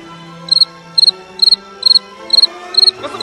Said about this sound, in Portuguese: O grilo! Eu sempre quis um grilo!